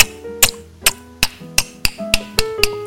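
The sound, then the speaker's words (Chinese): A voice imitates a gecko's call, made with the side of the teeth, with about nine sharp, dry clicks in a quick, fairly steady series over a faint tonal hum, with no talking. “不是，它是手工的叫声，它是用呃牙齿的侧边发出来的，”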